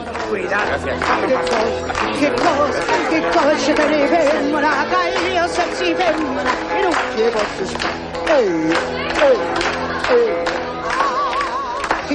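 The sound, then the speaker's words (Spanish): In a café, customers clap along in a steady rhythm while a woman sings over it, the hand claps sharp, the melody weaving above the busy café. “En un café, una mujer de color canta coreada por las palmas de los clientes.”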